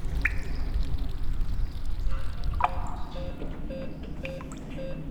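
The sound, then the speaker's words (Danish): Water drips steadily at roughly half-second intervals, each drop a small, hollow plink, over a constant low rumble of running water from a huge water installation used to cool an entire hospital, with air drawn through the cold water. “Deroppe har de placeret et kæmpestort vandfærd. Det bliver brugt til at køle hele hospitalet ned.”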